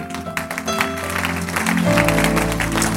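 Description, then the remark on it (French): An audience applauds Jesus with dense, steady clapping over sustained keyboard chords, the music and clapping swelling louder partway through. “On peut applaudir Jésus.”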